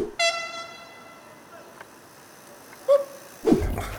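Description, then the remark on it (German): A long, steady horn blast drones for nearly three seconds, then fades; a moment later Clemens Fritz, riding a bicycle during a training camp, briefly mimics the honk with his voice in a short, loud burst. “Und Clemens Fritz hört erst so eine Hupe und macht die Hupe dann nach.”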